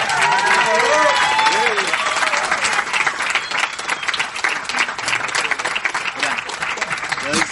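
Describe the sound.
Sustained applause from a large audience welcoming a speaker introduced to talk about follow-up, dense and steady clapping at high volume, with faint voices and a few cheers mixed in near the start.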